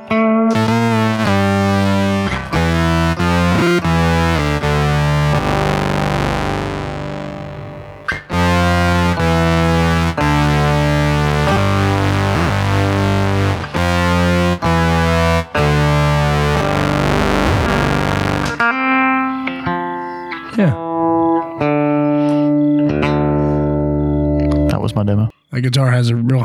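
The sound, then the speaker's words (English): A loud acoustic-electric guitar played through heavy distortion rings out in sustained, buzzing chords with brief gaps between strums, then shifts to choppier, sparser notes near the end, prominent throughout. “I was just using like Josh's distortions too”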